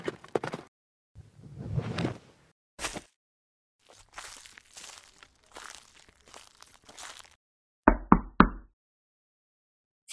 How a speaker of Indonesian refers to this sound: ada yang mengetuk pintu. Tolong bukakan, nak.